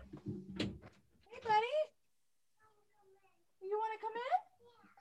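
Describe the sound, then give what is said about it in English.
A few dull knocks on a door at the start, followed by two drawn-out, wavering cat meows with a quiet pause between them. “I think he's knocking.”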